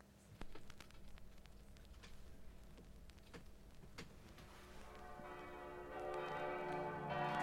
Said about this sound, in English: Ah, the church bells. Slightly mournful.